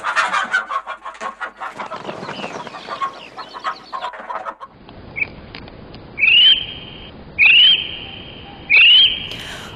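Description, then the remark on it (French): A kiwi calls three times, loud shrill rising whistles evenly spaced a little over a second apart, after a stretch of rustling, busy background noise. “Ce petit cri que vous entendez, c'est celui du kiwi, un petit corps arrondi couvert d'un pelage marron qui ressemble plus à des poils qu'à des plumes”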